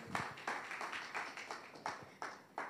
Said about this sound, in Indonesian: Ada amin saudara ya. Tepuk tangan dulu buat Tuhan Yesus saudara.